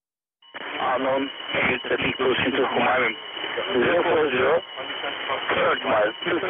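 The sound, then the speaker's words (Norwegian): A crackly, band-limited military radio recording from the Turkish air base Diyarbakir, about two minutes long, with garbled, indistinct voices talking continuously, muffled and distorted; something in English is repeated ten times. “Ja, det er skurrete og så utydelig at det til og med er vanskelig å høre hvilket språk det er.”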